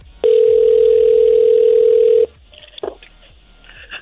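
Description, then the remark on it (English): A loud, steady telephone dial tone hums for about two seconds, then cuts off, followed by a brief faint click or beep against a quiet background. “Yeah, let's make that call.”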